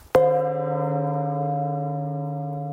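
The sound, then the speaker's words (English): A single strike on a guard room gong, used for sounding the hour, quarter hour, half hour and alarm, rings out loudly, then sustains with a rich, shimmering hum that fades only slightly over a few seconds, with no voices present. “in front of every guard room, there was always a gong. And that was for sounding the hour and the quarter hour”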